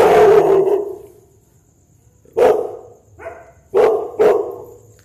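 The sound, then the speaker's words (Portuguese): A dog right beside the speaker, a few metres from a house, barks very loudly several times in short, separate bursts, with a brief growly whine between them; there is no talking. “Tem um cachorro latindo muito alto.”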